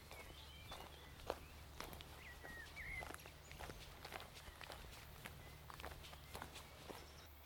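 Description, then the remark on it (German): Steady footsteps crunch softly along a narrow, soft wood-chip forest path with some roots at an even walking pace, with faint bird chirps and a low background hum. “Ich entscheide mich für links. Und das ist jetzt ein schöner, weicher Weg mit so Holzschnitzeln, einige Wurzeln.”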